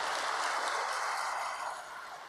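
audience applauding

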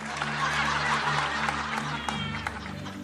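audience applauding

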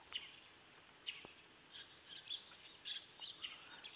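small birds chirping outside

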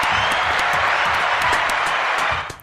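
applause

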